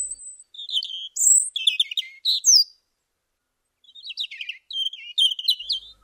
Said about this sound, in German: Vögel zwitscherten sorglos in Margaretes Vorgarten